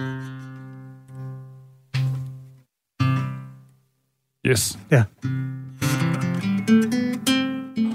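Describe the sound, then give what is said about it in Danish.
Several guitar chords are struck one at a time and left to ring out, then a quick burst of strumming leads into steadier playing, clear, with a brief spoken word. “Kan man høre gitaren nu?”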